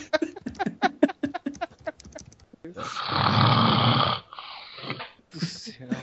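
Brief voices at the start, then a loud, harsh, rattling snore about a second long, followed by a softer, shorter snore and a final brief snort.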